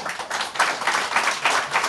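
A live audience applauds steadily, many hands clapping at once in a dense, continuous burst that stays fairly loud throughout, with no voices over it.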